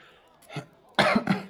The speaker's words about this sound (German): Oh Gott, ich muss ständig husten, es ist soweit.